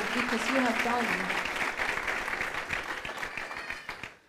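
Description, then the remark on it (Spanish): An audience at a Spanish-language church sermon bursts into sustained applause to the Lord, a dense wash of many hands clapping that holds steady for several seconds before tapering off, with a few voices rising over it at the start. “Eso es una un momento para que usted le dé un aplauso.”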